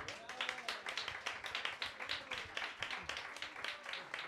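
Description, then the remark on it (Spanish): An audience applauds steadily, many hands clapping in a dense, continuous patter with small irregular surges in loudness, and no one speaking over it. “Ok, aplausos, ahora sí.”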